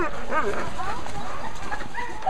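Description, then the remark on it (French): A crowd of sled dogs barks and yips all at once, a dense, overlapping, excited chorus with high whines mixed in, loud throughout. “Bien encadré, on ne vous laissera pas partir seul en pleine nature avec un traîneau et des chiens.”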